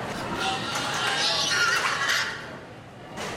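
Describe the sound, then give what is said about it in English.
High-pitched squeals rise and overlap as agitated pigs call out in the cattle sheds at a county fair, over a steady wash of background noise, loudest midway before fading. “On the night that Donald Trump Jr.'s bombshell emails were released, the pigs in the cattle sheds were more agitated than the people.”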